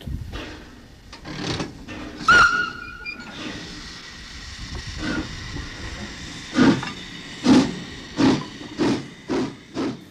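A small coal-fired steam shunting locomotive hisses steadily, with loud bursts of escaping steam and a run of rhythmic chuffs building toward the end; no one speaks.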